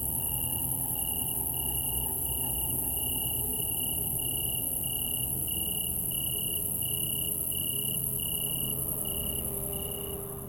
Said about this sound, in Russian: Никаких посторонних звуков тоже, просто обычный приглушенный шум топей. Бесконечный писк насекомых, хор лягушек и жаб, плеск воды.